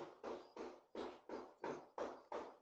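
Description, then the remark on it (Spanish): A quick, steady series of about eight knocks on a door, evenly spaced and fairly faint, with no voices in between. “parece que están tocando la puerta.”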